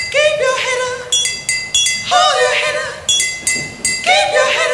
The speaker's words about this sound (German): den Beat dort auf mit Wasser gestimmten Milchflaschen ein